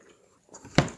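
Someone chewing the last piece of food: a soft, low mouth noise, then one sharp, crisp crunch that quickly fades. Brief and fairly quiet, with no talking.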